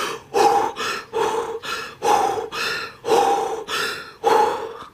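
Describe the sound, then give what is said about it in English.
Rapid, deep breaths in a steady rhythm, about ten sharp inhales and exhales in a row, loud, as a person's body shocks from cold water while taking a cold shower. No talking. “I hate how my body shocks and I start breathing uh, really deeply.”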